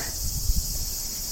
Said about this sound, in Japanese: 聞こえますかセミの声。セミも頑張ってます。